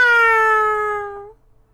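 A single drawn-out cat meow, a bright tonal cry that holds for over a second while its pitch sinks slightly, then cuts off into near silence.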